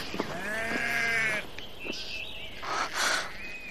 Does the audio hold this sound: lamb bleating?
yes